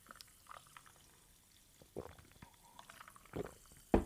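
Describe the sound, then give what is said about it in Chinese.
Sparkling water being poured for a toast, with soft fizzing crackles and a few short gurgling bursts that grow louder toward the end. No voices are heard. “那我们今天在开始节目之前呢，我们一起来用气泡水嘎打给来干几杯哟，干几杯哟。”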